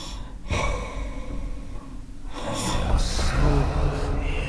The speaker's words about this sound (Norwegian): Ja, der hører vi at du snorker, ja.